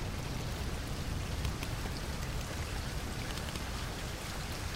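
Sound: rain falling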